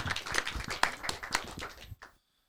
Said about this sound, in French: Merci à toi, euh, cher ami. Merci, on t'applaudit.